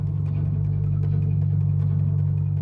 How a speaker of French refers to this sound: il devait produire un chant puissant de basse fréquence de 47 Hz, un fa dièse très grave